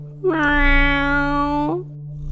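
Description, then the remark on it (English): A small dark-furred cat gives a single long, drawn-out, ululating meow, steady and rising slightly at the end, held over a low constant hum in the background. “Ripley the cat looks up at the portal, her green eyes reflecting the light. She emits a long, ululating”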